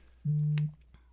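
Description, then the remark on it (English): A mobile phone notification sounds once: a short, steady electronic beep lasting under half a second, fairly loud, with a faint click near its end and no talking. “Oh yeah, that was my phone.”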